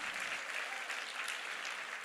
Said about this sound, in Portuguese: Quem pode dar uma salva de palmas ao Senhor?